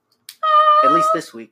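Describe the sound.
A household pet cat lets out one long, steady meow, loud, while a person speaks a few words over it.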